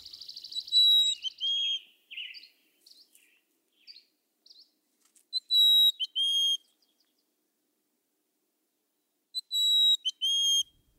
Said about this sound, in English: This is a mountain chickadee from the Sierra Nevada.